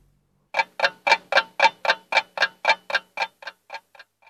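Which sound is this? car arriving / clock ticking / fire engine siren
clock ticking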